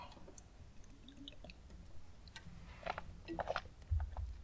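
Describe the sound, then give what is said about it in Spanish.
Quiet sipping and swallowing of water: soft wet mouth clicks and small gulps spread over a few seconds, ending in a low thump, with no talking. “Pausa para trago de agua.”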